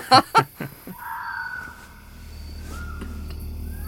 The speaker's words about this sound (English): That's just an owl.